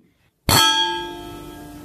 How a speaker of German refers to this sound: So können sich nur tolle Weingläser anhören. Klingt ein bisschen wie die Glocke aus meinem Heimatdorf